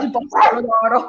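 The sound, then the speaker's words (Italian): A dog barks, a short sharp burst overlapping a person talking, with the bark loud over the brief stretch of speech. “scusami per il cane di Abbaia.”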